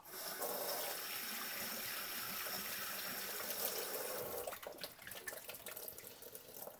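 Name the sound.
tap water running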